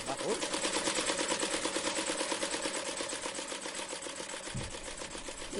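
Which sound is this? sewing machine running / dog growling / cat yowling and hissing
sewing machine running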